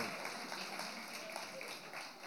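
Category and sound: crowd, audience applause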